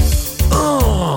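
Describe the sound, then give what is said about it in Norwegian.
A short, loud musical jingle introducing a review of the game Pokémon Violet, with rich, buzzy tones, a few punchy hits and then a sustained note that slides slightly downward in pitch, and no talking. “Den kule vignetten kan bare bety én ting.”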